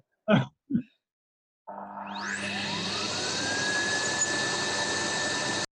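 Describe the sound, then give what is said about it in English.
After two quick throat-clearing sounds, a vacuum cleaner switches on; its motor whine climbs in pitch, then settles into a loud, steady roar that continues to the end. “Uh, vacuum cleaner. Okay. Yes.”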